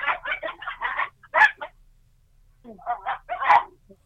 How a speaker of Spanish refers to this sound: Hay, hay bronca ahí entre los perros. Cachorros se están matando.